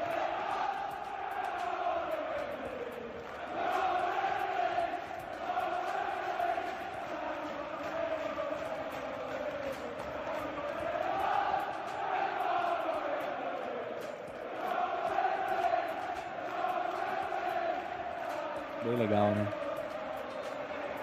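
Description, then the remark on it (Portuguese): A huge stadium crowd roars and chants together at the final whistle of a league match, fans singing that they will be league champions, in a steady, swelling wall of voices, loud and sustained for the whole stretch, with waves of cheering rising and falling. “o segundo vídeo, por favor, que é no final da partida, a torcida cantando, nós vamos ser campeões da liga e é exato, o exato momento do, do apito final, a torcida vibrando e dá, dá aquela explosão de alegria.”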